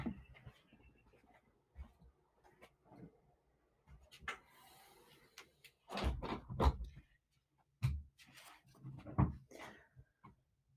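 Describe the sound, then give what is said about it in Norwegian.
Rustling and footsteps give way to a few sharp knocks and thuds, like a door being pushed shut and latched, followed by a little more shuffling. “Jeg tror jeg må lukke døra.”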